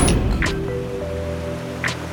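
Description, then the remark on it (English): Ocean waves wash in a steady roar, with two brief swells of surf rising over a soft, sustained tonal hum; no one speaks. “Bring me the ocean.”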